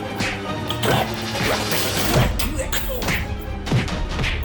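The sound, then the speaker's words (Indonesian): Two betta-fish demons beat Pitruk together: a flurry of punches and heavy thuds lands in quick, irregular succession, loud, each blow a sharp smacking hit over a dense, busy background. “Kedua siluman ikan cupang serempak menghajar Pitruk. Tentu saja Pitruk dibuat pukulan bulanan.”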